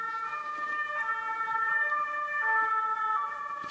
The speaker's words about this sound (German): und da geht das Martinshorn draußen an.